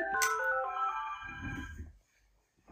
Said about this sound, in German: ja, wir sind live, hier geht das Telefon, da muss ich gleich mal kurz rangehen.